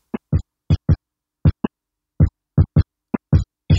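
Drum hits chopped by a hard gate: about a dozen short, punchy bursts with a deep thump and bright top, each cut off abruptly into silence, in an uneven stuttering rhythm with no voices.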